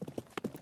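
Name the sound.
horse hooves clip-clopping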